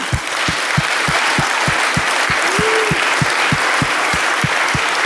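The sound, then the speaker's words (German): Loud, sustained applause from a crowd fills the whole stretch, with a steady low thumping beat, about three per second, running beneath the clapping and a brief whoop partway through. “Einen ganz heftigen Applaus.”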